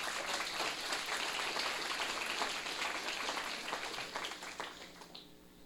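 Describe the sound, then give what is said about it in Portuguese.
A crowd applauds Jesus steadily, a dense wash of many hands clapping that fills the space before tapering off in the final seconds. “Será que você pode aplaudir Jesus por isso?”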